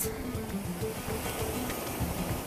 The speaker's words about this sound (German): Ach, wunderschön. Meeresrauschen. Ich spaziere gerade am Strand entlang